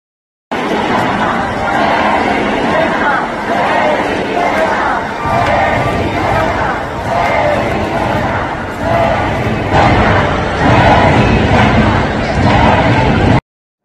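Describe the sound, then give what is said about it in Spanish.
A huge crowd of thousands in an auditorium chants "Xóchitl, presidenta" in unison for Xóchitl Gálvez, a loud, dense roar of voices repeating the same rhythmic phrase over and over without pause for about fourteen seconds. “Lo tomaron de esta manera los miles que estaban allí concentrados gritando, Xochitl, presidenta.”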